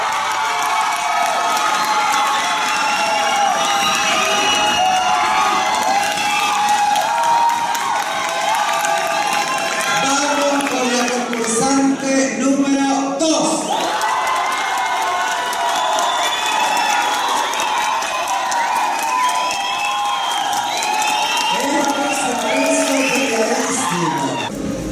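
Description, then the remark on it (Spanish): A large audience shouts and cheers continuously, its shouting creating a tie between contestants: a dense wall of voices with whoops and rising excited cries, loud and sustained throughout with no individual speech standing out. “¿Qué te parece que el público haya, hecho este empate con gritos, con todo?”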